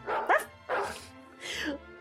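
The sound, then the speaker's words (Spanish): Three quick, high-pitched yaps from a small dog, fairly loud, spaced evenly across about two seconds with brief pauses between them. “Pero aquí hay un perrito cuyos ladridos mantendrán la soledad de tu casa y nuestro agradecimiento va con él.”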